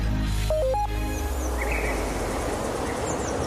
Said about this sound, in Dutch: Ik sta buiten, midden in het groen. Ik hoor op de achtergrond een paar vogeltjes. Het is hier prachtig.